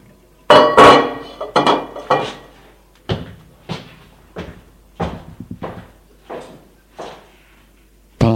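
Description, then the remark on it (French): Kitchenware being handled as someone takes a salad bowl and salt from a sideboard and prepares a salad: a series of sharp clattering knocks and clinks, with dishes and a bowl set down and moved about, some thumps like a cupboard door, no talking. “il prend du réfrigérateur trois grosses tomates, de la moutarde, il les met sur la table, prend du buffet un saladier et du sel et prépare sa salade.”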